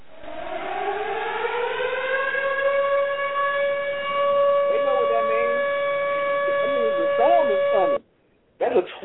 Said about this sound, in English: tornado siren. That means go jump in the tub. That's what it means.